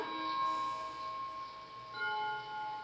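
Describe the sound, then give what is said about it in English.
Clock tower bells chime the fourth quarter with long, ringing tones that hang and overlap, and a fresh strike sounds partway through. The bells are moderately loud and carry, with no one speaking. “Just want, I just want you to hear the chimes, which you've heard before.”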